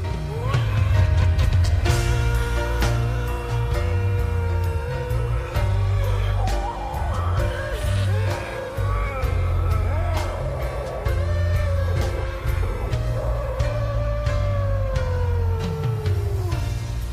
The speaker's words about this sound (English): he's playing the solo using a running canister style vacuum cleaner, placing the nozzle on his face and modulating the sound that it makes